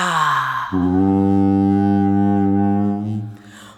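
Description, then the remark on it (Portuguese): A voice imitates a jaguar growling: a short breathy burst, then one long, low, steady droning roar held for nearly three seconds at full loudness before it fades out. “roncou.”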